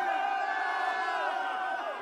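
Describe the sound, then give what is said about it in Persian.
A crowd cheers and whistles loudly, many voices blending into a continuous, excited roar that holds steady for a couple of seconds; a film crew, including a boom microphone operator and people behind the camera, whistling and clapping on a film set. “صدای سوت و تشویق از پشت سر بالا گرفت فردی با بوم میکروفون به دست و چند نفر پشت دوربین مدام برایش کف زدن.”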